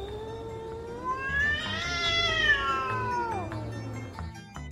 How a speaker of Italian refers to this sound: C'erano poi due gatti che litigavano in lontananza.